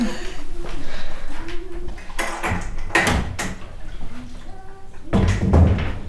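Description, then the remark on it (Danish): A door is handled and pushed shut, with a cluster of bumps and thuds from the latch and frame, then a final firmer knock as it closes. “Kan jeg lige, ja, øh, måske, måske lige lukke døren?”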